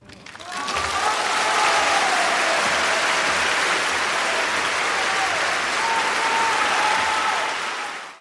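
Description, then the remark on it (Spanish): Sustained applause from a crowd: a dense, steady wash of clapping starts abruptly and holds at full volume for about seven seconds, with faint whistles or cheers threaded through, before cutting off. “Así que por favor un aplauso para mi Yayito”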